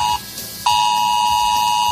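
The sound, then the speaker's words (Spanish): A loud, piercing phone emergency alert tone, a steady electronic beep that dips briefly near the start and then holds continuously, the signal Civil Protection uses to send general, immediate emergency alert messages to phones. No one speaks. “Desde mañana podría sonar nuestro teléfono con este pitido de alerta.”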